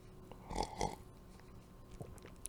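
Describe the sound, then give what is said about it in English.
Beer being sipped: two short, wet slurping gulps in quick succession, followed by a quieter swallow-like sound a moment later, with no talking. “And um, I'm gonna sip it.”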